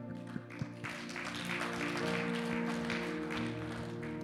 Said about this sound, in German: das Klatschen war nicht, weil wir so gut gebetet haben. Das ist unsere Kultur. Wir feiern, wenn Leute einen Schritt auf Gott zugehen.